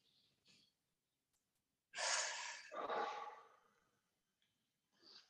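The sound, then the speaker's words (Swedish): One deep, audible breath: a long airy inhale, then a slower, rushing exhale, with near-silence on either side and no talking. “Andas.”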